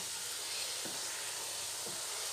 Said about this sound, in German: Aber wenn ich das ein bisschen schabe, dann gibt es da immer noch so ein bisschen Flüssigkeit. Das alles, was da so blubbert und was man so rauschen hört, das ist eben noch die Flüssigkeit, die verkocht.